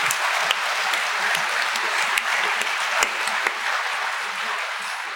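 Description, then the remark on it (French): A crowd applauds steadily for several seconds, a dense, even wash of clapping with a few sharper individual claps standing out, holding loud throughout with no voices over it. “Applaudissements.”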